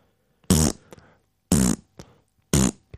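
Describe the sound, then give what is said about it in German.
Three loud, brassy fart sounds repeat at an even one-second interval as a ringtone, each a short buzzy blast followed by a tiny sputter. “Ähm, also, ein Furz ist als Klingelton keine kluge Anschaffung.”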